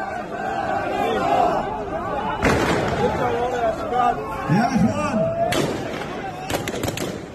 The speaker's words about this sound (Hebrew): בתמונות שמלוות את הקולות האלה אפשר לראות מאות צעירים הם עומדים בצפיפות, בפנים גלויות, חלקם חמושים בנשק חם, הם מניפים אותו באוויר, יורים באין מפריע. אלו תמונות משכם, שעה מכפר סבא. הלוויה של חמושים שנהרגו בעיר יום לפני כן בחילופי אש מול כוח ימ"מ ישראלי